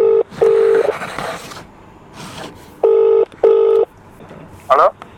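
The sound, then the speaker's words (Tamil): Loud electronic telephone tones sound in short paired bursts, a quick double beep, a pause, then another pair, as a live call to a mentor is placed from the Rathnavani FM radio station, with faint voices murmuring in the gaps. “அவருடைய குருநாதருக்கு நம்ம இப்போது லைவாக அவர் ஃபோன் பண்ணிவிட்டு அவர் சர்ப்ரைஸ் ஒன்று பண்ணுவோம்”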